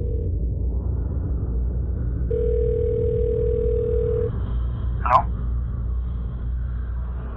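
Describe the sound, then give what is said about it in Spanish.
A telephone line tone sounds in a steady two-second burst as a babysitter calls the parents, followed by a brief chirp, over a constant low rumbling background with no speech. “Un poco incómoda, decidió mejor dejarlo así y se fue por el teléfono decide llamar a los padres.”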